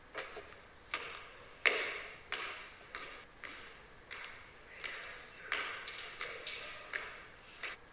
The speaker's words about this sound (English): Uh, this was definitely coming from within the building, close proximity to where we were, but going unheard by our ears. So while we remained silent, disembodied footsteps are heard.